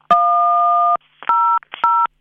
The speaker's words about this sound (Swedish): Hej! Du har kommit till Bandits automatiska telefonsvarare. Knappa in din ålder med hjälp av tangenterna.